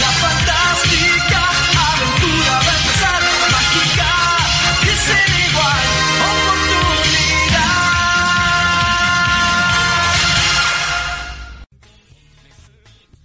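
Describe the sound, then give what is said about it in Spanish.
A loud, upbeat 1990s animated-series theme song with a vocalist singing over full band backing, playing continuously before cutting off abruptly near the end into faint background noise. “Bueno, pues lo que acaban de escuchar es una de las lo que acaban de escuchar es una de las también grandes, grandes, grandes canciones de los años 90.”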